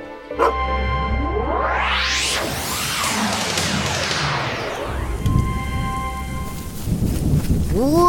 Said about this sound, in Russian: Ой, такой ливень! Смотрите, вся дорога размыта